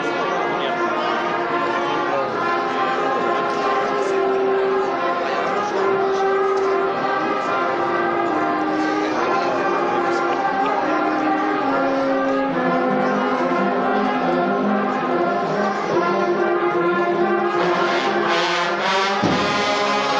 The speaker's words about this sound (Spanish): Y bueno, la, plaza sigue repleta y se escuchan ya los sonidos de la banda de conete y tambores de Nuestra Señora de la Caridad de la Hermandad de la Santa Agonía de Córdoba.